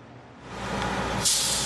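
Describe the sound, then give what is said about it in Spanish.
A bus carrying undocumented migrants arrives in downtown McAllen, United States, rumbling with a low engine drone that builds, then its air brakes release a sharp, loud hiss near the end. “Al centro de McAllen llega un autobús tras otro con migrantes indocumentados, a quienes la patrulla fronteriza ha asignado jueces migratorios tras su llegada a la frontera sur de Estados Unidos.”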